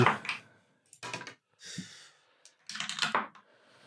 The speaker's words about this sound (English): Um, so uh, let's go. Um, roll those dice. Ooh.